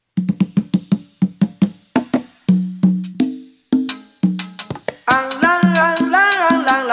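Salsa music plays loud and alone: a salsa cover version from Italy, number 8 on a countdown of salsa hits, with a punchy, syncopated piano and percussion groove, then horns swell in over the rhythm during the final seconds.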